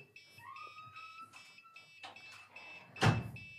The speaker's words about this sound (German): Die lag draußen vor der Tür und hat es angefangen zu piepsen.